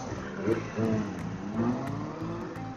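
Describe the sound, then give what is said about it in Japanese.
A four-cylinder motorcycle engine revs in repeated rising swells, its pitch climbing and falling several times with a smooth, buzzing whine, fairly loud with no talking over it. “4気筒はね、僕好きです。好きなんですよね、あの音。”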